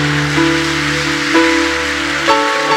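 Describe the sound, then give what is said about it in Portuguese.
Steady, dense audience applause, invited by a preacher, fills the whole stretch, a continuous patter of many hands, while sustained keyboard chords hold underneath and shift twice. “Quer aplaudir? Aplaude.”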